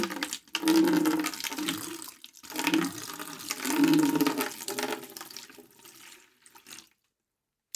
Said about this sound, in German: Ja, bitte, dann geh doch äh, kurz urinieren.